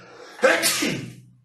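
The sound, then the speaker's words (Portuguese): A single sudden sneeze bursts out loudly and then trails off quickly, with no talking around it. “Ai, saúde para mim, obrigado.”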